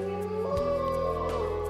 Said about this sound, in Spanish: Se escuchaba mucho el aullar de los lobos.